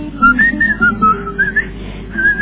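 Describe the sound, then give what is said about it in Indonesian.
A man whistles a cheerful, wandering tune in short melodic phrases while washing his employer's car, fairly loud, with a low rumble of background noise underneath and no talking. “dia pun cinta sama ni mercy sambil nyuci sambil bersiul-siul”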